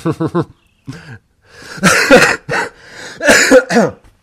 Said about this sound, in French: voilà, ça c'est parce que j'ai été trop méchant, donc je tousse.